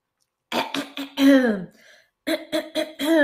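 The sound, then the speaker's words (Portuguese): A person coughs and clears their throat in two quick bursts of short, harsh voiced hacks with a pause between, fairly loud, with no talking. “Tem outros danos à voz, como por exemplo, tossir excessivamente e pigarrear.”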